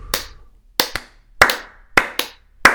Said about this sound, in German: So, jetzt klatschen wir mal in die Hände.